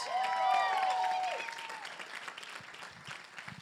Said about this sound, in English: Can we give another round of applause for Jesus?